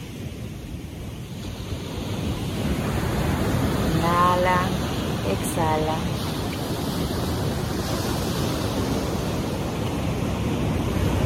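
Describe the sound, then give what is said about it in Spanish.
Steady ocean surf rolls and washes continuously, a broad rushing roar with gentle swells, while a calm voice speaks softly over it partway through. “Visualiza cómo las olas van y vienen.”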